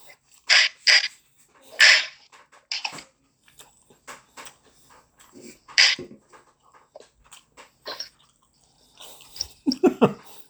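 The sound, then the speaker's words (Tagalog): Water pours and splashes in several short, uneven bursts, moderately loud, with brief quiet gaps and faint rustling between them. “Ang tubig ngayon yun, ha?”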